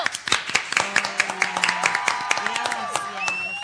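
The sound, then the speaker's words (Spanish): Audience applause on a radio show as a guest is introduced: many sharp open-palm claps in a dense, irregular patter lasting the whole stretch, with voices talking and calling out over it. “Vamos a presentar como corresponde, con un aplauso de palmas abiertas y sangrantes”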